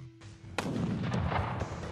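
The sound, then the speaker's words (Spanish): A single loud gunshot cracks out after a low, steady hum, followed by a long rumbling echo that slowly fades; no one speaks. “Porque Will Bill era un individuo que podía soportar imperturbable el silbido de las balas pasando junto a su cabeza y que apuntaba y disparaba con mucha precisión.”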